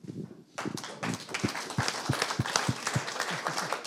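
A crowd breaks into applause after a brief quiet start, dense clapping building quickly and continuing steadily, with a few sharper individual claps standing out in an irregular rhythm.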